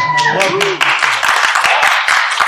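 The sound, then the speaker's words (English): An audience bursts into steady, dense applause for Peter Cushing that fills the whole stretch, with some voices cheering or calling out over the clapping at the start. “So Peter Cushing got applause, but no, none for Christopher Lee.”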